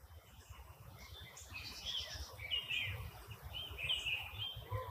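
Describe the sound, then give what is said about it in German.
Forest ambience in the Bessunger Forst with birds singing: bright, warbling chirps and trills rise and fall over a steady soft rustle and low rumble, continuing throughout with no voices. “Ähm, dieser Wald hier, der Bessunger Forst, der ist dir ja nicht unbekannt.”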